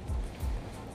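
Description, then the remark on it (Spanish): A soft, steady wash of falling rain in Puerto Rico in 2020 fills the background, faint and continuous, with a couple of brief low rumbles swelling underneath; no one speaks. “Este, donde estoy grabando, yo creo que se pueden escuchar las gotas de la lluvia de fondo, porque todavía está lloviendo.”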